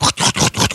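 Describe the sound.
A voice imitates a worn wheel bearing grinding, producing a quick run of four or five raspy, gritty bursts in a steady rolling rhythm, loud.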